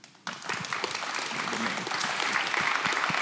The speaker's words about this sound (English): So I want to just give him a round of applause too.